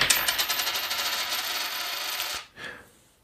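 A small metal coin, being flipped, rings with a bright, rapid rattling as it spins and settles on a hard surface, fading out after a couple of seconds.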